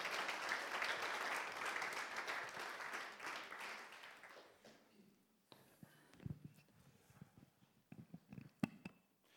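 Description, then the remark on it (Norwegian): A crowd applauds steadily for a group for about four seconds, the dense clapping then fading out into scattered footsteps, rustling and small knocks. “Kan vi få lov til å gi denne her gjengen en fantastisk god applaus?”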